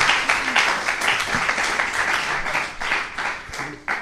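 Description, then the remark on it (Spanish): A group applauds steadily for about four seconds after someone reads a sentence aloud, a dense patter of many hands clapping at once, moderately loud, with a few sharper claps standing out near the end. “Muy bien, muy bien, un aplauso, eso es.”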